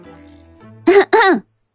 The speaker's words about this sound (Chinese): 甘球正在那里喋喋不休地说着呢，突然从齐剑那个屋子里传出了两声轻轻的咳嗽。